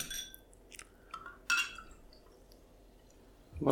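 Two glasses of water clink and knock against a hard surface as they are served and set down, a few bright ringing taps spread out, then a duller thump and shuffle at the end.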